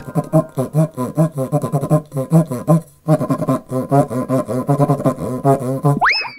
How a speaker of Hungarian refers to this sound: A köcsög duda kiváló szórakozás, akár baráti összejöveteleken is. A műsorszám köcsög duda megjelenítést tartalmazott.